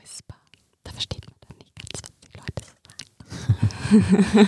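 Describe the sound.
Soft, breathy ASMR whispering with unintelligible hushed syllables and crisp mouth sounds, shifting into a slightly louder murmured voice toward the end.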